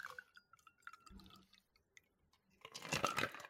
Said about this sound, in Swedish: Då häller vi upp lite grann rätt upp i micken.